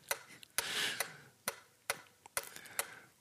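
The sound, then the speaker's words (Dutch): A ticking timer clicks steadily, about two sharp, crisp ticks per second, with a faint hiss running underneath and no voices. “even een tellertje.”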